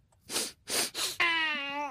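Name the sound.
sniffle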